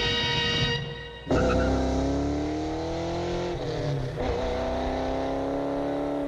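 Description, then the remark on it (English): A car with an intentionally loud exhaust system revs hard with a loud, throaty exhaust, dipping briefly before roaring up again in sustained, rising growls, with no one speaking. “So, what's the appeal of an intentionally loud exhaust system?”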